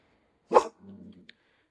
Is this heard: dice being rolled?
no